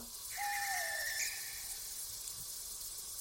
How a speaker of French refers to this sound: Un oiseau Ouais, c'est bien ça. On l'entend plus loin maintenant. Je viens de m'approcher de la fenêtre et je vois l'oiseau blanc perché sur le toit d'un autre bâtiment.